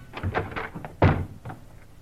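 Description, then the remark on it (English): FBI agents force open a bedroom door: a rapid series of dull thumps builds to one loud, heavy crash near the middle, then a few softer knocks trail off, with no voices. “in a quick movement, they rush the door to Frank Hadley”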